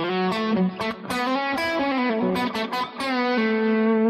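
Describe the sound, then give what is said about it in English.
A distorted electric guitar plays a quick, bright major pentatonic lick in a southern rock style, with bends and held notes ringing out over about four seconds, no voices. “with this major sound, this kind of southern rock sound, and they contrast each other and they sound quite nice.”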